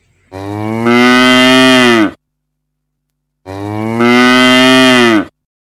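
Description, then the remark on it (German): A cow moos twice, loud, each call a long drawn-out low bellow of nearly two seconds, separated by a short pause of silence. “Hallo Kuh, möchtest du mit mir spielen?”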